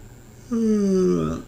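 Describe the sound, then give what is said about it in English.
A single heavy exhale from a person who habitually breathes heavily, lasting about a second, with a low, raspy voiced rumble that trails off, heard alone with no talking. “I'm I'm a I'm a heavy breather. Like I I breathe really heavy.”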